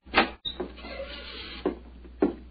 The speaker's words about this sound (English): Do you think perhaps we could try the door, …? Yes, certainly. It's a good idea. Hello, hello. It's unlocked.